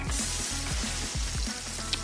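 A steady sizzle of about one and a half cups of ground tomato puree cooking in a hot pan, with soft rhythmic scraping as it is stirred for about five minutes, continuous throughout with no voices.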